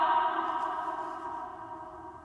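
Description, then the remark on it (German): A lingering, slowly fading wash of voice hangs in a cathedral-sized space with a measured reverberation of about 16 to 17 seconds, its tones smearing together as the reverberation decays steadily with no fresh speech. “Wir haben mal gemessen 16, 17 Sekunden Nachhall etwa.”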